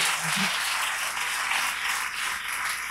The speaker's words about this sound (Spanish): O sea, de verdad que es fascinante escucharla y cada vez que habla da ganas de aplaudir absolutamente todo. Eh, pero bueno, esto sí que es un aplauso, así que te mereces.